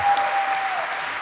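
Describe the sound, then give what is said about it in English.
A burst of steady applause from a group, dense overlapping claps holding at a moderate level for about a second, with a thin faint tone running underneath. “Clap, clap, clap. Give him some love.”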